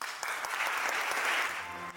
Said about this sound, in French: Les applaudissements sont nourris et la salle est debout.